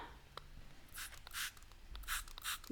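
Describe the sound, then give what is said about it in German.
Four short, hissing spray bursts from a small pump bottle of throat spray being sprayed into the mouth onto a tonsil, fairly quiet, coming in two pairs with brief pauses between, against a near-silent background. “Darf ich mir vorher, warte, ich würde mir vorher für alle mit meinem Hals- und Rachenspray meine Mandel einsprühen, weil die schon wieder wehtut.”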